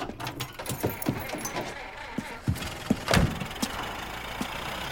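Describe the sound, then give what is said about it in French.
An old car engine, in a car of a kind that could have been bought 20 years ago, cranks and settles into a rough idle, with scattered clicks and clunks like keys and a door over the steady mechanical rumble. “Moi, je voulais te montrer un peu comment on flambe, et toi, tu conduis une tire que ma mère aurait pu acheter il y a 20 ans.”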